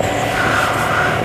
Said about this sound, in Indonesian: Engine. Wow.